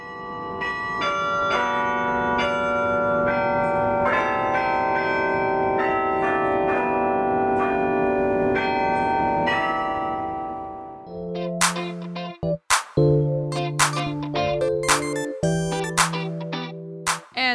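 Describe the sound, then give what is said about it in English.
The iconic tower bells of a university campus play music in a special program, dense overlapping tones sustaining and blending for several seconds before shifting to sharper, distinct struck notes in a quicker rhythm, loud and resonant with no voices. “special programs are put on by regular Longhorns who work hard to bring the sounds of everything from classical music to jazz to hip hop to campus through the iconic bells, putting their own twist on a classic institution.”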